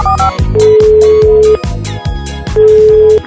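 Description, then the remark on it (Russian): A phone's ringback tone, from a live on-air call to a singer on Russkoye Radio, plays two steady, mid-pitched beeps, each about a second long with a pause between them, over loud rhythmic music with a pounding beat. “Давайте ей позвоним прямо сейчас.”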